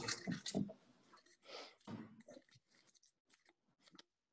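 Irregular rustling and crinkling of paper, a few louder crackly bursts at the start and then softer scattered crackles as a slip is handled and pulled out, with no talking.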